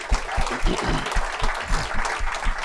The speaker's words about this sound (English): I don't know if anybody's done this yet today, but could we just have a round of applause